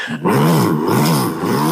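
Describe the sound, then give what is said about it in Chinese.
A voice imitates a motorcycle engine as a practice exercise for Eastern folk singing, with a low, gravelly, growling drone that starts after a brief pause and holds steady, its pitch rising and dipping slightly as it rumbles on. “就是大家有听过摩托车引擎的声音， 嗯嗯嗯， 对，大家可以试着模仿一下。”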